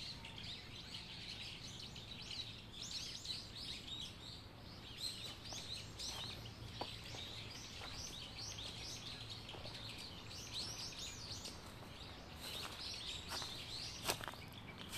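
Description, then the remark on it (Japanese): Many birds chirp and sing continuously in a bamboo grove on the hilly upper part of Rengeji Pond Park in the morning, in a dense, overlapping chorus of high, bright calls, with a few sharper clicks and soft rustling underneath; no one speaks. “特別編蓮華寺池公園 鳥たちの声”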